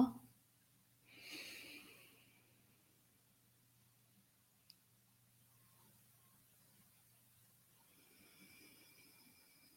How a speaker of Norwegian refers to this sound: I ditt tempo gjør du tre lange, dype pust til nå.